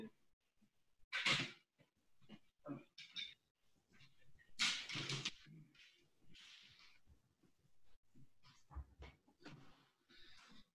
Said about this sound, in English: Hold on, let me take this dog out. Come on, come on.